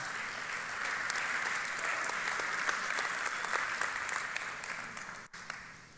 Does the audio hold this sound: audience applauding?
yes